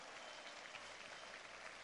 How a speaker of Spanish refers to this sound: Un aplauso espectacular para ellos.